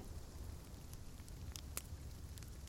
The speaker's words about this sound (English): Not much to see out there tonight. Raining like it is. Oh, no moon, no stars, just the sparkle of raindrops in your flashlight. I'm glad they built these little picnic shelters with a fire pit in the middle. Nice to be able to dry off for a while.